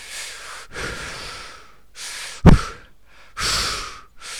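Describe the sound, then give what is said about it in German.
Heavy, audible breathing: a series of long, airy inhales and exhales in an uneven rhythm, broken by one sharp, snort-like puff partway through. No one speaks. “Also, der, der, entweder atmet der immer sehr laut oder während äh, Florian Schröder immer spricht, ähm, holt er sie ihn runter.”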